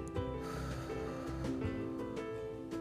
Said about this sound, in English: But first, let's do our deep breathing. We're going to smile Breathe in your nose and out your mouth.